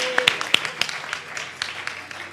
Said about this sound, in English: Okay, let's give them a clap. Yay!